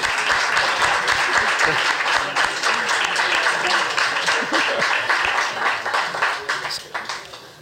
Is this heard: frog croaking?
no